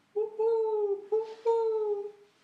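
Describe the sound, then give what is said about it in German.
A person imitates an owl with three hollow hoots: a long drawn-out one, a brief one, then another long, falling hoot, with no other sounds around them. “Hört die Eule draußen.”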